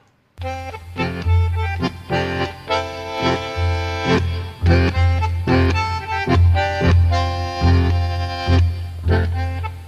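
A tango recording plays at steady volume, with a strong bass line and rhythmic chordal accents from piano and strings, marked by sharp periodic attacks. No one speaks over it.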